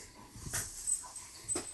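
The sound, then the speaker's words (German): A dog makes quick breathy panting and soft whimpering sounds in the background, a few short bursts over quiet with no talking. “Da im Hintergrund hört man laut. Entschuldigung, diese, mich mit dem Hund kämpfen.”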